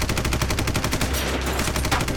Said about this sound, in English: As the assault team enters one room, they're met with submachine gunfire.